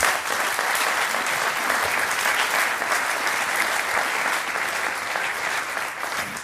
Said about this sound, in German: Applaus